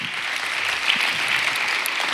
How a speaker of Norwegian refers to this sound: Skal vi gi en varm applaus til gjengen her? Og da mener jeg en varm applaus.